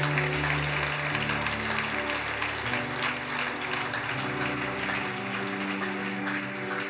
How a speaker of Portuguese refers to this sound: E se você crê, aplauda Jesus bem forte por isso.